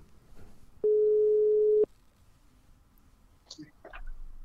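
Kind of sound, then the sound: signal or alarm, telephone ringing tone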